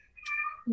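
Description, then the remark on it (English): A single short meow from a male cat, a rising-then-falling tonal cry ending in a lower grunt-like note, heard fairly clearly with no talking over it. “I don't know if you can hear my cat meowing.”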